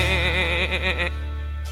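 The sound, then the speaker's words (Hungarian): A person imitates a sheep with one loud, quavering bleat lasting about a second while reciting a Hungarian children's poem about a sad sheep, then it breaks off into a quiet background hum. “szomorú a birka, mert üres az irka, azért béget, azért sírni, mivel fogja teleírni majd csak teleírja Irkáját a birka”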